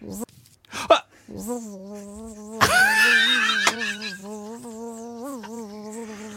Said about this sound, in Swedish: Jag, jag vågar sätta pengar på att du har dresserat en humla. Att stå still. Det har jag ju såklart gjort. Framför micken. Såklart är på rätt avstånd.